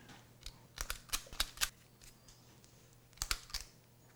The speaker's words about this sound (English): And then we put them in one ounce scoops onto parchment paper or an ungreased baking sheet.